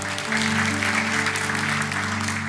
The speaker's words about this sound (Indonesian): Berikan tepuk tangan buat Tuhan. Amin.